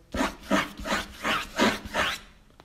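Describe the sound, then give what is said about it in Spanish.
Six raspy scratching strokes in a steady, even rhythm, fairly loud, like claws or something rough scraping a surface over and over, with no voices. “Beto se despertó con el ruido de unos arañazos”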